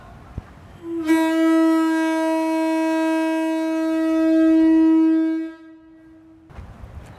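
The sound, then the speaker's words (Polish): A single loud, steady blast from a lighthouse foghorn powered by compressed air, with a deep, buzzing tone and rich harmonics, held for about four and a half seconds before cutting off abruptly. “Zatem jako przedsmak jego mocy zapraszam Państwa na jego drugą stronę i teraz też pokażę, jak taki buczek działa.”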